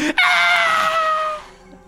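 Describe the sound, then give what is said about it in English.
A voice imitates a scream: one sustained, high-pitched shriek lasting over a second that slowly trails off, loud with nothing else around it. “Turns around and a scream,”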